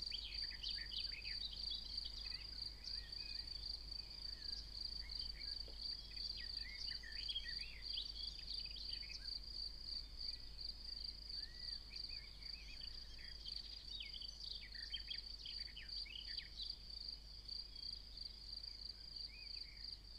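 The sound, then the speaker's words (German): A steady, shrill chorus of crickets trills continuously, while a bird sings quick, varied warbling phrases over it throughout, with no voices, like a lark above an open meadow. “Und die Lerche, die singt dazu. So trägt jeder dazu bei, dass der Zusammenklang rein und vollkommen ist.”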